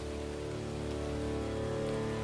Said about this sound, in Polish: deszcz oczywiście siąpił.